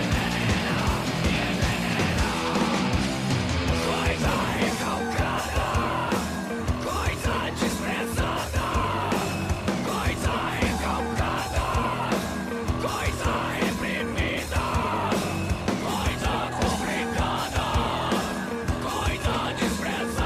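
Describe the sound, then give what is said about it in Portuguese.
A loud, dense band track plays throughout with distorted guitars, pounding drums and harsh shouted vocals, keeping a steady, aggressive energy from start to finish. “puta banda, e eu acho que vale a pena qualquer um ouvir. Sobe maldita”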